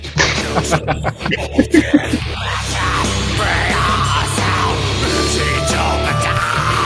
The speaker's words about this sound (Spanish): Eso es un gutural. Mm. Pero es un gutural que gusta.